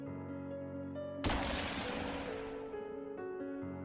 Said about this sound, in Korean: 그 말이 끝난과 동시에 허공을 가르는 총소리가 들려왔다.